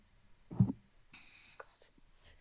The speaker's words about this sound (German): ich habe vergessen, das Fenster zuzumachen. Ich mache das mal eben. Okay. Sonst hört ihr immer Außengeräusche.